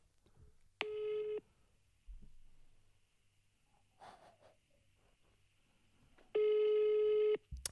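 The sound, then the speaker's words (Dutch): A telephone ringback tone sounds twice while calling a phone number given as an alternative to the 112 emergency number, each a steady buzzy beep lasting about a second, separated by a long pause with faint breathing and rustling in between. “Ja, we kunnen weer even dat nummer gaan bellen”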